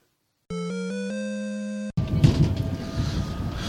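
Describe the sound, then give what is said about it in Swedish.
A train departure chime as the train leaves Ronneby bound for Malmö plays a short series of stepped electronic tones lasting over a second, then gives way to a steady, loud rumble of the train moving. No one speaks. “Så, då rullar tåget iväg här.”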